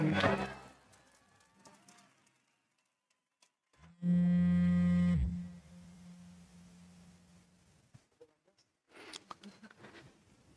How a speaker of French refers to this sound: Alors pour une fois, ce n'est pas un, ce n'est pas un bug poste Le bip que vous venez d'entendre, c'est tout le long du film. en fait, c'est agaçant. C'est agaçant.